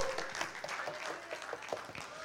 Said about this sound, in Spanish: Dar un aplauso a Cristo.